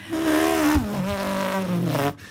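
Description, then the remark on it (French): A voice imitates a car driving past, a continuous buzzing, engine-like hum that slides in pitch for about two seconds before cutting off, loud. “Sûr, oui, bah, le, bruit, le bruit de voiture, alors, bah, bon, alors maintenant les voitures quand elles passent, et avant c'était...”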